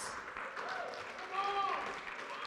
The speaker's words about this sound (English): Come on up, guys. Give them a big round of applause.